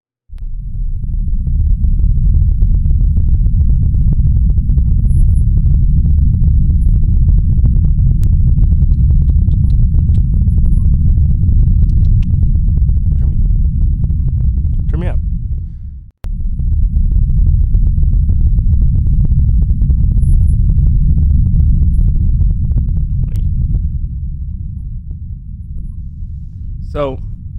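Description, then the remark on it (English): A deep, steady low-frequency drone from deep in the earth, recorded by a microphone dropped down the Kola borehole, rumbles loudly and continuously, breaking off briefly midway before resuming, with faint thin chirping tones rising near the end of each stretch. “So now what I have is a recording from a super condensed microphone that was dropped all the way down into the Kola borehole. Ooh. This is the sounds from the earth.”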